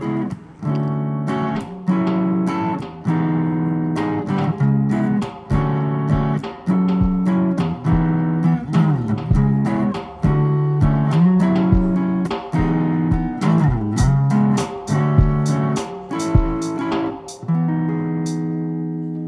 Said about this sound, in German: Dann hören wir mal ein bisschen Musik hier.